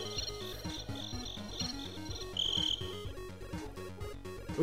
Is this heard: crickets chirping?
yes